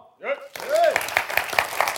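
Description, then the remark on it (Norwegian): A live audience breaks into a burst of scattered clapping that continues steadily, with a voice speaking briefly just before and over the start of the applause. The audience claps after being asked whether they know Fotballuka. “Noen av dere kjenner til fotballuka, kan dere klappe nå?”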